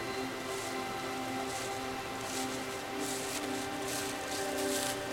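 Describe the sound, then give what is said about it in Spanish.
Wind moves through forest tree leaves with a steady, airy rustle, swelling into brighter gusts a few times before easing back, continuous with no voices. “Ahora los árboles se están moviendo con el sonido del viento, diciéndonos hasta luego.”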